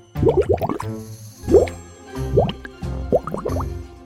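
Bubbling bath water in a bubble bath, with clusters of wet plops and gurgles, each bubble rising quickly in pitch, coming in four uneven bursts with short pauses between them. No voices.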